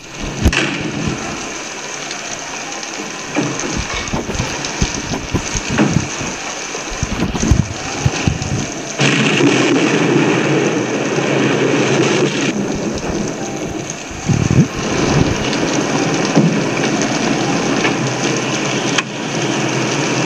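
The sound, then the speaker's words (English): A hurricane storm in the film noir Key Largo roars steadily, with heavy rain hissing across a broad band and deep thunder rumbles swelling in the low end, loud and continuous, with no voices. “A lot of secrets, a lot of mysteries, but the storm provides”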